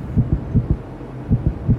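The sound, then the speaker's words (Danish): A deep, muffled heartbeat thumps in lub-dub pairs, with a noticeable pause partway through before the beats resume. The low pulses stand alone with no voices. “Jeg kan mærke, at mit hjerte hopper et slag over.”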